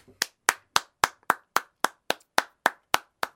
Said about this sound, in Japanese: これも拍手を差し上げます。